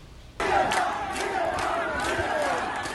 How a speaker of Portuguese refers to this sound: Aos gritos de liberdade e abaixo a ditadura, milhares de manifestantes marcharam pelas ruas de Havana e outras cidades cubanas.